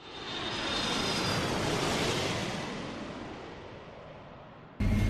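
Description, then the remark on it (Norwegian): A steady, broad roar of aircraft engine noise inside a Boeing 747 cargo plane that has come up from Liège and will continue to Tel Aviv, swelling over the first two seconds, slowly easing, then jumping back up abruptly near the end. No one speaks. “Ja, Nå står vi inne i Kall sin 747, eh, som kommer opp fra Liège.”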